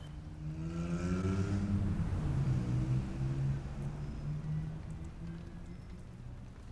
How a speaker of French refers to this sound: Il commence à pleuvoir. Ouvrez votre parapluie.